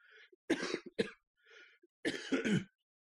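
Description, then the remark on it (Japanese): Harsh throat clearing: two quick rasping coughs, a breathy pause, then a longer, rougher double burst, with soft breaths in between and no talking. “ちょっと咳払いします。”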